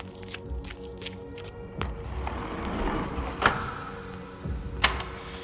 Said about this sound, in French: Je me suis retournée. J'ai vu un bâtiment, un centre commercial. Il était si grand que je, que j'avais l'impression de faire la moitié de ma taille. Les portes se sont ouvertes et j'ai couru vers l'entrée.